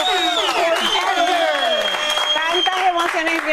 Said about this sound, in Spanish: Quiero dar el aplauso más grande que le hemos dado a nuestra Miss Universo.